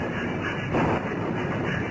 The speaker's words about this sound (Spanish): Los relámpagos y truenos hacían retumbar los muros de la celda.